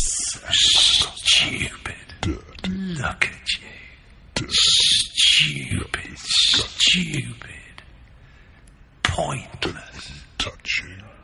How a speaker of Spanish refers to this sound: Lo que están escuchando es una alucinación auditiva muy parecida a lo que escucha alguien que tiene esquizofrenia.